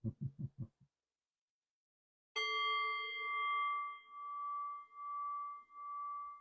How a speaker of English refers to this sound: I'll close the bell. Oh, I'll ring the bell to close us out.